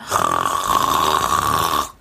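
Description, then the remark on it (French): A woman imitates loud snoring in one sustained, rough, rattling breath lasting nearly two seconds, forceful, then cutting off abruptly into silence. “puis tu ronfles pas un peu, hein, tu ronfles comme une grosse vache, vraiment.”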